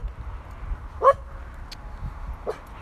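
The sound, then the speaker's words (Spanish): A female dog gives a few sharp, separated barks at a homeless person hidden behind a hedge, one bark clearly louder than the others, against a low rumbling background with no one speaking. “Había una persona sin hogar oculta tarde de un seto y eso ha ofendido gravísimamente a mi perra.”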